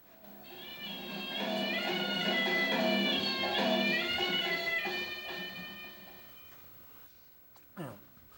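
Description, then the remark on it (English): A nasal, reedy wind instrument holds an unbroken, wavering melody for about seven seconds with no pause for breath, played with circular breathing, inhaling through the nose while pushing air out through the cheeks, by a drummer-caste musician, then fades and ends with a short downward-sliding note. “That is, sometimes he breathes in through his nose while he's pushing out through his cheeks, and so he can keep the sound going without stopping for breath.”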